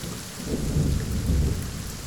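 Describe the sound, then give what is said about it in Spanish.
Heavy rain pours down steadily while deep thunder rumbles low, swelling twice in broad rolling waves. No voices, just the dense hiss of the downpour. “Ese día también llovía. El cielo quizás ya lo sabía. ¿O fue la tormenta?”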